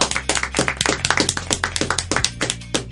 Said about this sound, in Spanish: Así que esta temporada también está eh, Nación Geek y Play Center. Un aplauso también para ellos. Aplauso.